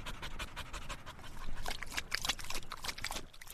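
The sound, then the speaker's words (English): A dog pants hard and fast after a run of about two miles, a steady run of quick, breathy huffs continuing without a break, with no voices. “After about two miles, we head back to the kennel with Dillon”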